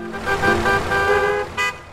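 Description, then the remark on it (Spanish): Street traffic rumbles steadily while a car horn sounds in several sustained honks, with a brief burst of noise near the end as vehicles pass. “Ni el sonido de los coches,”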